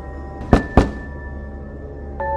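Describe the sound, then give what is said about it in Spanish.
Two firm, hollow knocks on a door, about a quarter second apart, over a low steady hum, followed by quiet; a faint tonal sound enters near the end. “Golpean a la puerta.”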